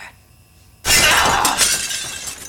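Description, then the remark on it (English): A sudden loud crash of mirror glass shattering as mirrors are shot in a hall of mirrors, bright and crackling across the highs, then a scatter of tinkling shards that slowly thins out over a couple of seconds, with no one speaking. “This whole room is full of mirrors.”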